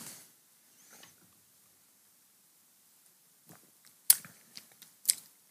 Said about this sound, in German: Da wollen wir uns doch ja. das Geschmatze noch richtig auf der Zunge zergehen lassen.